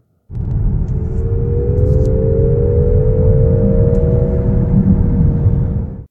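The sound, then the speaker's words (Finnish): A synthetic sport-mode engine sound: a loud, steady low rumble with a humming tone that slowly rises in pitch as if the car is accelerating, lasting about six seconds with no talking. “niin kytkintä, missä ne feikki äänet saisi pois sport-ajomoodissa, mutta en sellaista löytänyt.”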